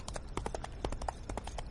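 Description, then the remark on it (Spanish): Horse hooves clip-clop in a steady, brisk rhythm as someone makes a long crossing on horseback, a dozen or so sharp knocks over a low rumbling background. “¿Se imaginará ella que hago esta travesía a caballo para ir a su encuentro?”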